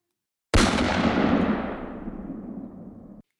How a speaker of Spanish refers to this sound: El disparo retumbó por toda la habitación